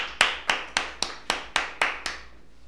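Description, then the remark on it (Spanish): Applause welcoming a show guest introduced as the fourth strongest man in Mexico, in the form of about eight sharp, bright hand claps in a steady, even rhythm, roughly four per second, with no voices. The claps fade slightly toward the end. “Un fuerte aplauso”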